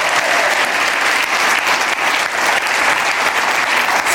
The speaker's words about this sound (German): Wunderbar, wunderbar. Ein Applaus. Danke.